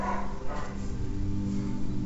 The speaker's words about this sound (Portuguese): Ai, amiga, só um off aqui. Pera aí, que tem um monte de cachorro latindo.